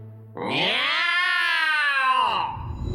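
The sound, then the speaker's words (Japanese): A loud, drawn-out cat yowl swells up and holds for nearly two seconds before trailing off, clear, amid cats meowing from all around, followed by a brief rustle of low background noise. “突然辺り一面から猫の鳴き声が聞こえてきたのです”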